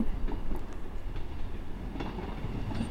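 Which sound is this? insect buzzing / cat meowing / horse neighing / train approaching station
train approaching station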